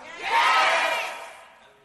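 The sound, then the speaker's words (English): An audience erupts in loud shouting and cheering as the preacher waits for everyone to shout, a broad swell of many voices that rises quickly, holds for about a second, then fades away. “I'm going to wait till everybody shouts.”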